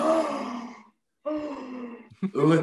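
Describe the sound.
A single voice mimics a crowd's shocked gasp, drawn out and breathy, repeated in three loud bursts with a brief pause after the first.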